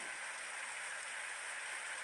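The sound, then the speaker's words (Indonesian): Steady rain falls in a continuous, even hiss, a dense wash of fine droplets that stays constant throughout with no pauses or voices. “Hujan mulai turun.”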